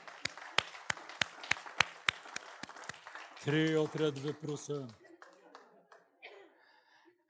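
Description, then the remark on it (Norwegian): An audience claps together in a steady, even rhythm, about a dozen sharp claps over three seconds, followed by a loud voice calling out and then quieter talking. “Skal vi gi deg en klapp allikevel?”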